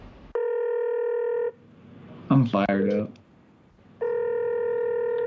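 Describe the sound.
An outgoing phone call rings back twice, each a steady, buzzy tone lasting about a second, separated by a pause in which a man speaks briefly.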